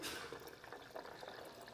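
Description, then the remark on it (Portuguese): Boiling water pours steadily over dry, unsoaked cashew nuts in a bowl to make cashew milk, a continuous splashing rush lasting a couple of seconds with no voices. “Estou usando água quente, água fervendo.”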